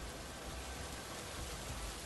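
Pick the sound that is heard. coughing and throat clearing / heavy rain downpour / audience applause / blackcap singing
heavy rain downpour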